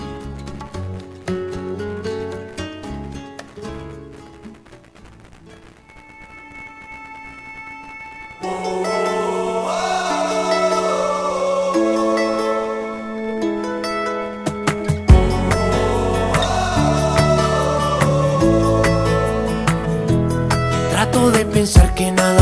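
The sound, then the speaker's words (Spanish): A Latin pop song plays as the first song on the Friday broadcast of La Caverna del Bohemio on Abrilet Radio La Sabrosita de Acambaya at 7:20 in the evening, opening with a soft, sparse instrumental before a sung vocal line enters and the full band swells in with a louder, fuller beat. “Son las 7 de la noche con 20 minutos y este primer tema musical dice y suena más o menos así.”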